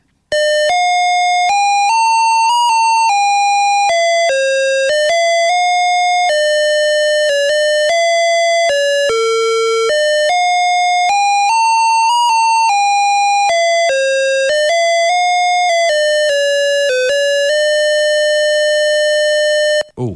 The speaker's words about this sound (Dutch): gaan we even luisteren naar de openingsmuziek zoals die op een PC was van King's Quest uit 1984